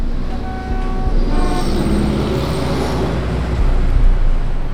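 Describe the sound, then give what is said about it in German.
Busy street traffic rumbles steadily with a low engine roar, while a few sustained car horn blasts sound near the start, then the steady traffic noise continues. “Vor mir lernen Autos, hupen, quietschen, stoßen stinkende Wolken aus.”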